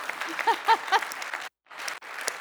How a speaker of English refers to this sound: want to just show a hand raise for who in this room has a birthday within one week of Christmas. Raise your hand. Can we clap for all of those poor folks?